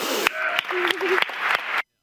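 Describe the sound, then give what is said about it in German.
An audience applauding and cheering as a woman is introduced, with scattered excited voices rising over dense clapping, loud, that stops abruptly after almost two seconds. “Ja, also sie wird vorgestellt, man hört gleich im Publikum, yay und so, endlich ist sie da,”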